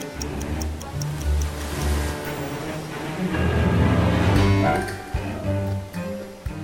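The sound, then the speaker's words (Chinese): A steady, rhythmic clock-like ticking in a Peter Pan story, Peter ticking as he swims toward the pirate ship with a crocodile following, crisp and evenly spaced for the first couple of seconds, set against a sustained musical background that swells and carries on after the ticks fade. “他滴答滴答地游着，那只鳄鱼也像找到同伴似的紧紧跟随着，一路往海盗船前进。”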